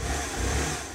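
A scooter engine hums steadily as a student delivery rider working for Uber Eats drives it through Nancy, a continuous mid-pitched motor drone with slight revving, loud and alone with no voices.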